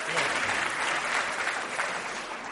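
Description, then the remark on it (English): Steady, dense audience applause fills the whole moment, a continuous crackle of many hands clapping at a fairly loud, even level with no voices rising above it. “Ladies and gentlemen, a big round of applause”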